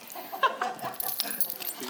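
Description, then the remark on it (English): A bunch of keys jangles in quick, irregular metallic clinks and rattles, a short bright burst of jingling that continues unevenly for a couple of seconds with no voices. “If you've got your keys, just grab, just grab your keys.”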